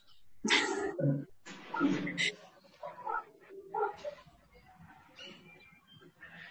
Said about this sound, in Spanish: Ay, ahora mi gato quiere salirse, a ver, ya casi. Ya casi.